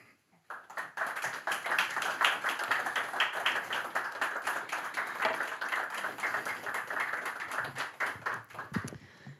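Steady audience applause from many hands welcoming author Kristin Berget at the Lyrikksalongen poetry event, a dense fast patter of claps at a fairly even volume that holds for about nine seconds before tapering off.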